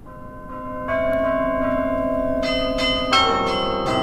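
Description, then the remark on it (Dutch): Church bells ring out a slow melody, successive struck tones layering into a sustained, resonant chime that fills the space, with no voices present. “Klinkt prachtig op klokken.”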